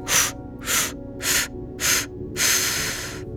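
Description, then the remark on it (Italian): Five sharp, forceful breaths in a steady rhythm during guided breathing, inhaled through the nose and pushed out through the mouth, the last one longer and drawn out, fairly loud with brief quiet pauses between. “Lascio andare ultime due respirazioni inspiro naso, butto fuori bocca 5 brevi, lascio andare e ultima respirazione di questo tipo.”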